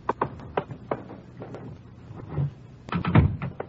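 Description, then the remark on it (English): The chief's door opens in a police squad room: a run of sharp clicks and taps from the latch and handle, then a fuller, louder swinging sound with a low rumble near the end, with no one speaking. “We just got back from Santa Ana, where, where we'd been questioning a red-headed suspect, and we'd flopped it in the squad room when Chief back trans door opened.”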